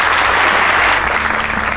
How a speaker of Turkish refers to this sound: Tekrar Türk sanat müziğine dönüyoruz. Ve Zekai Tuncay'ı davet ediyorum huzurlarınıza. Alkışlıyoruz.